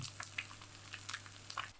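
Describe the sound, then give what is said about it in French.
A croque-monsieur sizzling in butter in a pan: a steady, quiet hiss with scattered soft crackles and pops, plus a low constant hum underneath, with no one speaking. “Les trucs qui crépitent dans le beurre là.”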